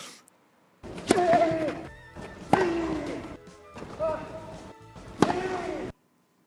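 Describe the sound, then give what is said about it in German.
Four loud, sharp vocal bursts from a tennis player during a rally as he runs for a drop shot, each a strained exertion cry with a sudden attack and falling pitch, spaced about 1.4 seconds apart against a low background. “Mhm ganz markantes oh, zwischendurch. Wenn er zum Stopp rennt.”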